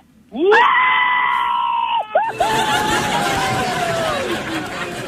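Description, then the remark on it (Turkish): A person lets out a loud, sustained shout that rises sharply then holds for a couple of seconds, breaks briefly, and continues as a long, wavering yell over noisy background chatter. “Daha fena bağırıyorum şimdi.”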